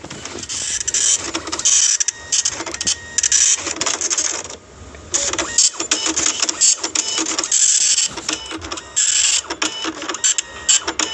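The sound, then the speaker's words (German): A loud electric fan whirs, its harsh, airy mechanical noise pulsing and fluctuating in choppy bursts with a brief dip partway through, and no talking over it. “Ich mach, mach meinen Ventilator leiser.”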